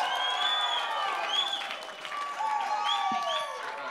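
A church audience applauds and cheers steadily to welcome the morning's speaker, with a dense wash of clapping under shrill whistles and whoops rising and falling throughout. No speech, just sustained, lively audience noise.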